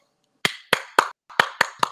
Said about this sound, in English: we will give another hey. round of applause for the Lakers.